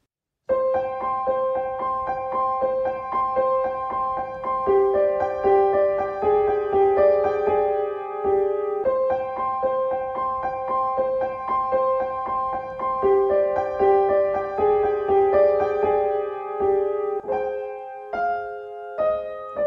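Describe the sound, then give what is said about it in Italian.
A slow, eerie horror-film theme plays loud and alone, its sustained notes carried by an operatic voice, the melodic phrase repeating about every eight seconds with no talking. “quella melodia, quella sequenza di note accompagnata da una voce lirica”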